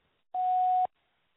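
A single steady electronic beep from a phone answering machine rings out for about half a second after its greeting, clear and fairly loud, then cuts off abruptly into silence, the tone that signals the start of a voicemail recording.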